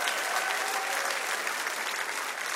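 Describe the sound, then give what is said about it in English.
A large audience claps and cheers in a dense, steady wash of applause that stays loud and even throughout, with no pauses and no speaking voice standing out. “Can we make some noise for our family in Brussels?”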